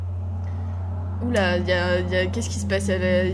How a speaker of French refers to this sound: a Air Force One qui passe à côté de tes fenêtres ou quoi Non, c'est juste une moto.